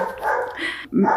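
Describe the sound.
A dog barks a few times in the background, sharp yips, because someone is standing at the door, while a person speaks over it.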